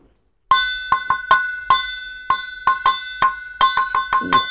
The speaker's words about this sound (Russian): Вот смотри, это... Кастрюля? Вот, правильно! Да! Мисс, да, сразу. это кастрюля!